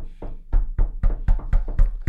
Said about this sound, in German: Ich glaube, man kennt es aus dem Unterricht. Jetzt kann jeder mal ganz kurz klopfen.